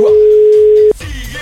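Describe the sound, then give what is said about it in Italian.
A steady, loud electronic telephone ringback tone on an outgoing call holds for almost a second, then cuts off abruptly, leaving quieter low rumbling and faint line noise. “Stiamo chiamando? Ma squilla? Aspettate. Eh. Squilla.”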